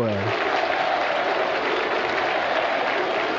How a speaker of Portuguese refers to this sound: Ah, a torcida do Grêmio bate palma.